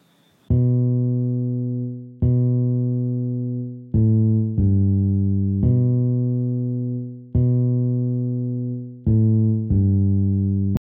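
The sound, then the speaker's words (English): A bass guitar plays a steady rhythmic pattern of deep, sustained notes as an example of rhythm in a piece of music, some notes ringing long and others short and clipped, loud with no voices. “The first one is a bass guitar, and the second one is a drum session.”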